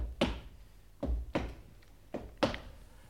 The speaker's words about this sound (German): dieses Schicksal, verehrte Hörer, wird bestimmt von den Schritten, die sich soeben mit gefährlicher Markanz der Couch nähern.